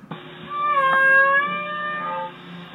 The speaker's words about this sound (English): So this is Navy low frequency active sonar and a whale sound. So the sonar is happening at the same time as a mm-hmm. whale sound?